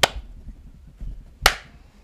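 One person claps twice, applauding themselves: two sharp hand claps spaced over a second apart, with a faint low rumble between them and no talking.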